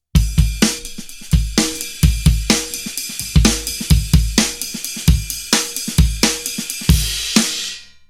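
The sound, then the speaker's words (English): A punchy sampled breakbeat loops steadily, with booming kicks, crisp snare cracks and a constant wash of ride cymbal in a fast, syncopated funk groove. Loud, no voices. “You should look up the Amen Break.”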